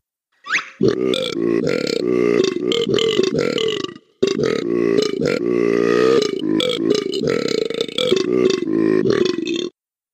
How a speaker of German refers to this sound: Und nur um dich zu nerven, hören wir uns jetzt einmal noch Captain Blubber an, der ausschließlich in Rülpslauten spricht.